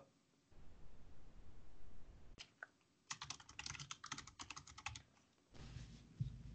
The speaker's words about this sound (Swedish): Efter att vi har haft massa slag på tangentbordet.